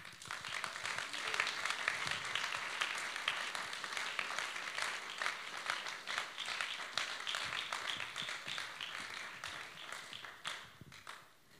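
A crowd applauds steadily with dense, overlapping claps that hold a fairly even level throughout, tapering off slightly at the very end. No one speaks over it.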